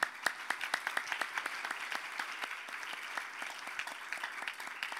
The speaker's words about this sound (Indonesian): Silakan duduk letakkan Alkitab saudara berikanlah tepuk tangan bagi Tuhan kita Yesus Kristus.